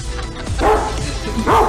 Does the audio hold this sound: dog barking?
yes